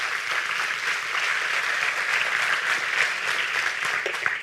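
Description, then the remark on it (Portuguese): A crowd claps steadily for several seconds, a dense, continuous wash of many hands with no voices standing out, holding a fairly even loudness throughout. “Eu quero que você aplauda ele bem forte.”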